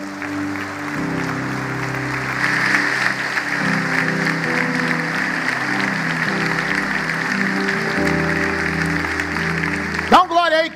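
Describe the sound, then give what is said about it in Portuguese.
An audience applauds God steadily for about ten seconds during an evening sermon, a dense wash of clapping over sustained organ or keyboard chords, ending with a brief voice rising at the close. “Alguém pode dar um aplauso a ele nessa noite?”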